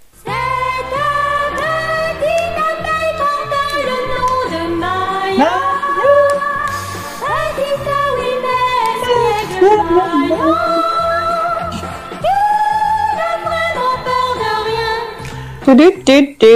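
A cheerful children's cartoon theme song plays loud and continuous, a sung melody with gliding notes over a steady, bouncy backing, cutting off abruptly at the end.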